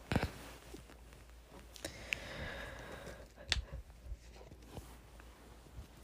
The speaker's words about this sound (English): Tell try it and tell me it doesn't taste like BO. It does. Oh my gosh. Um, with that, I'm going to take a sip.